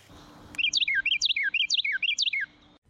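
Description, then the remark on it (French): A bird sings a clear, repeated phrase of bright, swooping whistled notes, about four rhythmic bursts in quick succession, fairly loud against a quiet background with no talking. “Have you ever heard a bird singing and wondered what kind of bird is it?”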